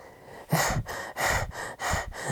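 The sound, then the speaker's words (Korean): Heavy, rapid panting, with about five breathy bursts in a steady rhythm, each one a harsh, airy gasp with short dips between, like someone badly out of breath: a story character gasping after coming up an uphill path. “타프는 헉헉 가쁜 숨을 몰아쉬었습니다.”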